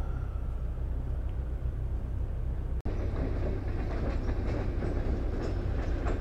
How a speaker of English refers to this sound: Here comes the train.